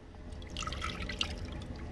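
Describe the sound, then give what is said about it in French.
About 300 grams of liquid cream pours steadily into a saucepan for making panna cotta, a soft continuous splashing and gurgling that holds at an even level for about two seconds, with no talking over it. “Donc on prend, les gars, de 300 grammes de crème liquide.”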